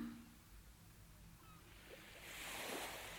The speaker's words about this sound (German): außer das Meeresrauschen das sich mit deinem Atem verbindet.